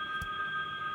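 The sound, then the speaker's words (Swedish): A phone rings with a steady, sustained electronic tone that holds unbroken through the moment, fairly quiet, with a brief soft thump near the start and no talking. “Oj! Vad är det? Ja men det är min telefon.”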